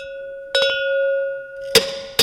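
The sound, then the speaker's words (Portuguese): Four sharp metallic clanks, a quick pair followed later by two more spaced hits, as a mallet held in the left hand strikes a cowbell fitted on the tip of an anvil fixed to a chair in a cowbell factory, leaving a steady bright ringing tone between the blows. “Maço na mão esquerda, chocalho enfiado na ponta da bigorna que está presa à cadeira.”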